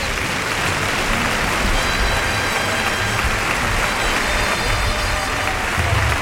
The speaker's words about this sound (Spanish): Ahí por el lado derecho le echa el capote a los hocico. Lo desplaza bien carretero. Y se lleva la ovación del público.